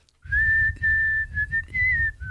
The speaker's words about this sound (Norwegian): Alt dette starta altså med at du plystra på følgende melodi